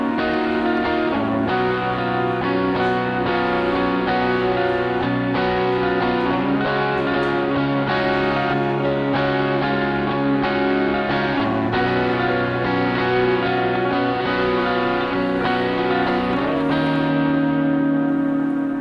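A looped instrumental song intro played live on a loop station, with layered sustained chords that repeat and shift every few seconds, steady and fairly loud with no voices.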